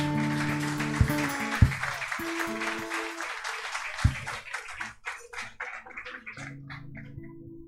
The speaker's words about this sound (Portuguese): Aleluia. Aplauda ao Senhor nessa noite.